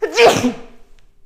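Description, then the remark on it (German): A single sharp sneeze bursts out loudly and then trails off into a breathy fade, with no talking over it. “Gesundheit.”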